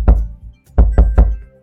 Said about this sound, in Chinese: 可是敲门的声音又传进了迪迦的耳朵。